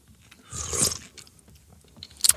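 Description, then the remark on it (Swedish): A wet mouth sound as someone takes a small sip of a drink during a game of Never Have I Ever, a brief slurp followed by a faint swallow and quiet clicks, with no talking. “Jag får, jag, får väl, jag får väl dricka på den.”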